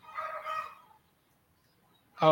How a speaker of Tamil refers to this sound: இந்த கோழி அரைச்சலோட எல்லாரும் கேட்டுட்டு இருக்க வேண்டியதான்